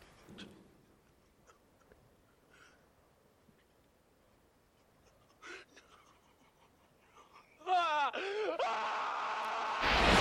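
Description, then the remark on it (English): After several seconds of near silence, a character, in a film scene, lets out a loud, strained scream of rage that wavers in pitch, then swells into a harsh, sustained roar that runs to the end. “That scream like haunts me to this day.”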